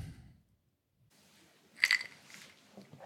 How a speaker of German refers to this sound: Das Ganze rühren wir dann erstmal ordentlich um, nicht schütteln, sondern rühren und gießen dann noch ein bisschen Soda dazu.